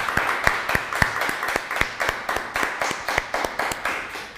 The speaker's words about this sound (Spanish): Un fuerte aplauso. Les saludamos. No, pero que se escuche fuerte el aplauso para todas las naciones.